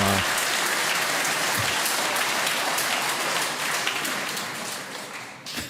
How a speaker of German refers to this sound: Ja, klatschen